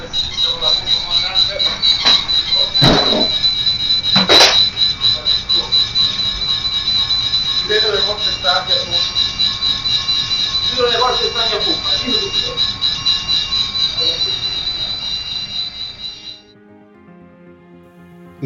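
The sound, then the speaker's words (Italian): The left side of the 290-metre cruise ship Costa Concordia, with 4,229 people aboard, strikes submerged rocks at 21:45; its hull grinds in a long, loud metallic creak growing ever louder, a shrill sustained squeal with sharp cracking bursts, shaking the ship and setting off alarms, lasting about sixteen seconds before cutting off to a low rumble. “Non c'è un rumore assordante, nessun boato, solo un lungo cigolio, sempre più forte, che fa tremare tutta la nave e scattare tutti gli allarmi.”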